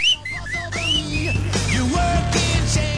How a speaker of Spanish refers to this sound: ¿Quién chifló?